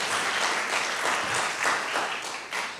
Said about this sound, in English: Now give him a clap offering and praise him at the same time.